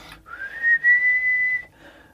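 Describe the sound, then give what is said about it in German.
A single sustained, high-pitched whistle, made by a person as an example of a higher whistling tone, that rises slightly at the start and then holds a steady tone for over a second before trailing off, clear with no talking. “Also so als Beispiel oder was höheres, so ein höheres Pfeifen vielleicht so.”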